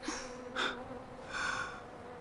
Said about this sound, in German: sagt sie, als sich ein paar Bienen nähern